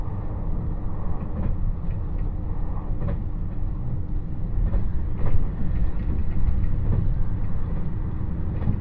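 The limited express Nanpu No. 26 on Japan's Dosan Line, running from Awa-Ikeda to Tadotsu, travels steadily on its rails, a dense low rumble with faint periodic clicks from the wheels passing over track joints, and no voices.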